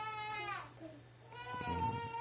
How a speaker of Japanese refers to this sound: うん。うん、アライグマが、アライグマが泣いてる。